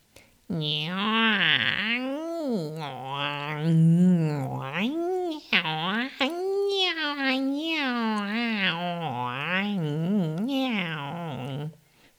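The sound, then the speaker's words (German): A person imitates a cat while pulling faces, producing a long run of drawn-out, warbling meows with sliding pitch, fairly loud, continuing for about eleven seconds without pause. “Zum Beispiel habe ich die Katze immer ganz gerne.”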